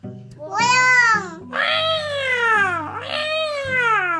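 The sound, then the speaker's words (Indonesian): A cat meows three times in close succession, loud, each cry long and drawn out with a wavering pitch, over a faint low steady hum. “suara apa itu kucing”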